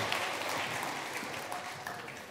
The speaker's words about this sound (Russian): Дайте аплодисменты прославлению, пожалуйста.